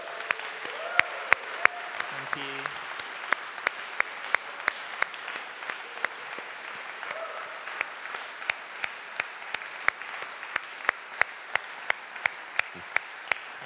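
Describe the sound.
A church group claps steadily for several seconds to thank someone for five years of service to the church, a dense patter of many hands with sharp individual claps standing out, while a voice speaks briefly over the start before the applause thins out.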